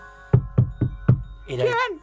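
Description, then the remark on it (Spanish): Four evenly spaced, solid knocks on a house door, fairly loud, followed right away by a short exclaiming voice. “La ah, puerta de la casa sonó.”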